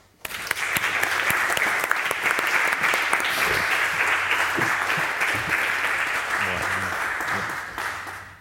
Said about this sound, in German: Mit ihrem Applaus auf die Bühne getragen, Peter Friemuth.